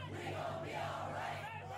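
A large crowd chants together in unison, many voices blending into a loud, steady outdoor roar as they repeat a sung refrain, filling the whole short stretch without pause.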